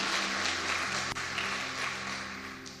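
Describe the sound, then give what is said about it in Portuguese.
An audience applauds steadily during a sermon, answering a preacher's call to applaud God once more: a dense wash of many hands clapping at once, sustained and fairly loud throughout, with a low hum underneath and no one speaking. “Aplauda ele mais uma vez.”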